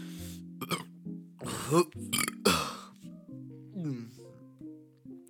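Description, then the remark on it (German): A series of loud burps after eating pizza, with deep, rumbling tones, several gravelly belches in quick succession with brief pauses between them, no talking. “Ich, ich schwöre, ich denke. Da, da kam noch was raus.”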